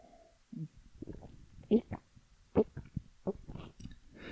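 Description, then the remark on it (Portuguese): Someone drinks water, with a few soft, irregular gulps and swallows spread over a few seconds, mixed with quiet mouth and breathing sounds. “Deixa eu beber uma água aqui, peraí.”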